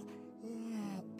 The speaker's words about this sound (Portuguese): quando você bocejou, irmão, acabou, você já está tranquilo. Ninguém boceja nervoso, ansioso, palpitando. Não tem bocejo. Bocejo é uma expressão de relaxamento.